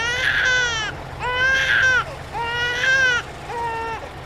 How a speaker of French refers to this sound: Imaginons que vous êtes dans les transports en commun. Vous tentez de vous concentrer sur votre livre, mais un bébé est en train de pleurer à côté de vous.